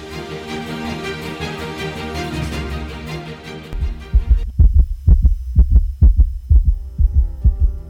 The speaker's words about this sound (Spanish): Los latidos los separan de la vida y la muerte. En el Perú, 7 de cada 10 defunciones neonatales fueron de bebés prematuros,